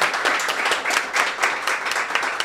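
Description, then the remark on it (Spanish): An audience claps steadily for the café staff who served them, in a dense, crackling burst of applause that stays fairly even throughout, many hands at once with no voices standing out. “aplauso a la gente de Café 401 que nos ha servido hoy”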